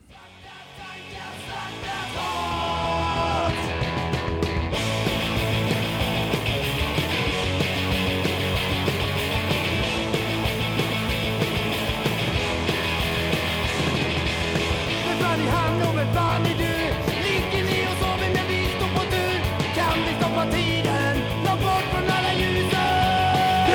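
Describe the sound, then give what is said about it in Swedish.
A loud, distorted rock song plays with a male singer shouting and yelling over dense guitars and drums. It fades up in the first couple of seconds, then stays at a constant full intensity. “Jag tror det bidrar till det här göteborgska att han bara gapar.”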